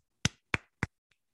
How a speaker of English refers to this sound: Now to the golf clap.